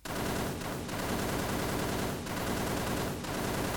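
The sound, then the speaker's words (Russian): A dense volley of gunfire roars continuously for several seconds, many shots overlapping into a loud, crackling barrage with brief dips and surges in intensity. No voices. “Да на чё этот залп еще когда заряжали?”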